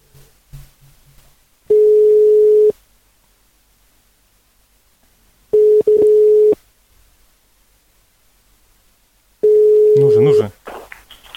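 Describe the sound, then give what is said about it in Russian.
Three loud ringback tones from an outgoing phone call, each a steady one-second hum, spaced about four seconds apart, with a faint voice at the start and talk beginning over the last ring. “Даже гудок есть.”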